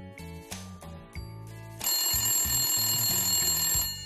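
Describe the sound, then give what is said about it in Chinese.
Poli's phone rings nonstop: an electronic ringtone plays in short repeated bursts, a bright melodic trill that starts in separate pulses and then runs continuously and louder, with no voices over it. “泡里的电话响个不停。”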